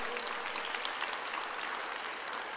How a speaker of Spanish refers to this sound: Ahora sí, apláudale al Señor, Él se lo merece.